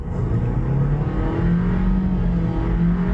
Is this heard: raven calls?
no